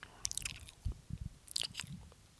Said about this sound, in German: nur so schmatzen.